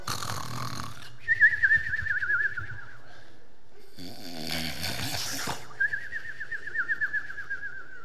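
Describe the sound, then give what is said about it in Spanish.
Several people in a sleeping enemy camp snore in turns at three in the morning, deep rumbling inhales followed by high whistling wheezes on the exhale, repeating in a slow, steady rhythm with no talking. “El campamento del enemigo está todo dormido. Solo se escuchaba.”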